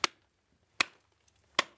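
Three sharp, evenly spaced strikes of a replica Bronze Age pick, a bronze head on a beechwood haft, chipping salt crystals from a thick brown-orange salt layer in a chamber inside a salt mountain tunnel. Each strike is a bright crack with a short gritty tail, with no voices.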